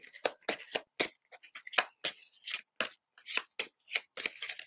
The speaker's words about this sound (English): Clear the cards. My hands are small, so I don't shuffle, shuffle cards like a lot of people do.